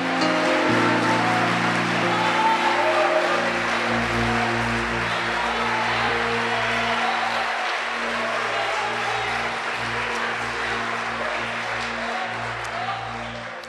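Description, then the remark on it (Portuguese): An audience applauds steadily for about fourteen seconds, a dense, even wash of clapping that stays loud throughout, with low sustained musical tones humming underneath and faint voices in the mix. “Pode aplaudir. É para ele.”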